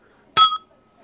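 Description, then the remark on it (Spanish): A single bright clink of two drinking glasses touching in a toast over Scotch whisky, sharp, with a clear ringing tone that lingers briefly before fading into quiet. “Ah, salucita, salucita, salucita.”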